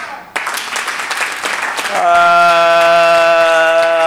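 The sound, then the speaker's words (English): A church audience claps during a sermon in a dense, scattered burst of applause for about two seconds, then a loud, sustained organ-like chord swells in and holds steady. “Uh, those who are clapping by this revelation, I set you free from every bondage.”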